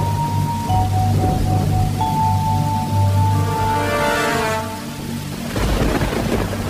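Steady rain hisses throughout, joined by low rumbling like thunder, with sustained musical tones droning underneath before a brief lull and a renewed swell.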